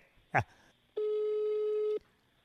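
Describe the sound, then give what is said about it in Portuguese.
A steady electronic telephone ringback tone of an outgoing call to a friend, a biologist, sounds for about a second, clear and fairly loud, preceded by a brief clicking burst, with quiet line noise before and after. “tá chamando aqui o telefone.”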